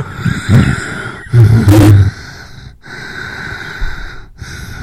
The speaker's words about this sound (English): Are you okay? Yeah. Yeah, I'm fine. Why? Because I'm telling you, your fat's showing there, buddy. I can hear you breathing. I was just trying to sit up.